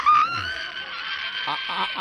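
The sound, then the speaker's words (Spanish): A shrill, high-pitched girlish scream held for about two seconds, loud, with a wavering tone and a few brief vocal bursts near the end. “quiero ver esa reacción, el grito que, vas a dar”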